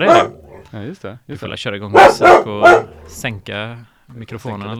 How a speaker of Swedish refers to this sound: Jaha, det är en hund som här. Ja, det är en hund i studion.